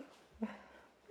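The speaker's own dog, coming in, breathes with a single short, soft huffing exhale that fades into quiet. Nobody speaks.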